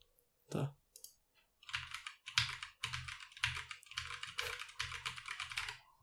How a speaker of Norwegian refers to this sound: MX Brown er det de har, som er taktile, så det er jo eh, Det er vel samme, samme motstand, som mm. uh, de røde, men her med et lite taktilt klikk.